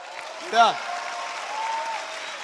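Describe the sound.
Steady audience applause, a dense wash of clapping, with a brief voice or shout rising over it near the start.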